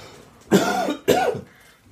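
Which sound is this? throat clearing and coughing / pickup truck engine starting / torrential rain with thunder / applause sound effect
throat clearing and coughing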